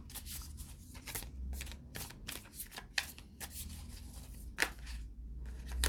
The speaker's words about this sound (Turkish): Sonuç kartlarını çekelim bakalım.